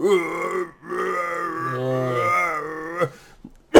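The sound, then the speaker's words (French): A voice makes raspy, guttural grunting sounds imitating people who have never spoken trying to speak, two long strained drawn-out efforts followed by a couple of short harsh bursts, loud. “ils font des bruits de même en essayant de parler, mais ils sont pas mhm.”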